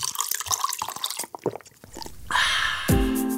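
Coffee is poured into a cup, starting with scattered drips and splashes, then a steady stream whose pitch rises as the cup fills.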